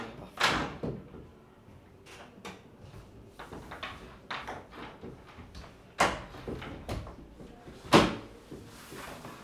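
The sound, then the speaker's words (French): A code-locked entrance door is handled: a series of sharp clunks, latch clicks and rattles spread over several seconds, with two louder thuds as it shuts. No one speaks. “Voilà, donc ça c'est le code 2908 euh, pour la porte d'entrée ici. D'accord. Ça fonctionne jour et nuit. et là oh, c'est moi qui ai ouvert, mais ça reste fermé.”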